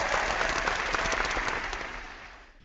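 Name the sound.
applause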